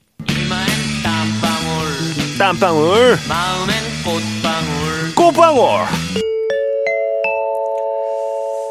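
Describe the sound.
A 1979 Korean rock song, an original children's song, with a lively sung Korean vocal over a full band plays loudly for about six seconds, then cuts abruptly to a few sustained, chime-like electronic tones.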